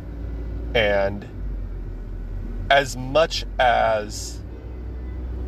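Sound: car interior road noise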